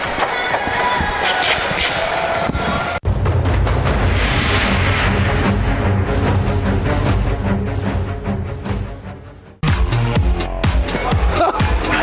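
A T-shirt cannon firing: loud, booming blasts amid a constant wall of roaring crowd noise, with abrupt cuts as the noise drops out and surges back.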